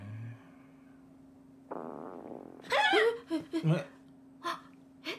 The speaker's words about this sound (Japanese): 今の今のすいませんこれ僕のお腹の音です。さっき聞こえたっていうのも監督のお腹の音でしょう。そうっすね。あの昼食べ損ねてるんもうありますよね。